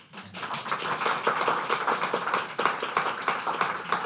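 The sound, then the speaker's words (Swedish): A steady round of applause from a group, dense overlapping claps forming a continuous crackling wash that holds at an even level for about four seconds, with no voices over it. “De här applåderna ska vi använda i framtiden.”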